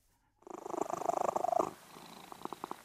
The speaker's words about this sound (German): Am Abend, wenn ich im Bett liege, kommt der Tiger manchmal zu mir rein und legt sich dann auf den Boden und schnurrt. Und das finde ich total angenehm, weil es ist irgendwie so beruhigend.